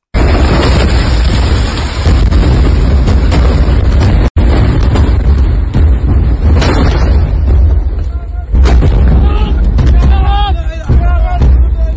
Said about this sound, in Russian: Это парковка больницы, э, машины скорой помощи стоят, все, и рвутся, рвутся бомбы, просто вот, ну, видно, всполохи, все, все во взрывных волнах, и вот это.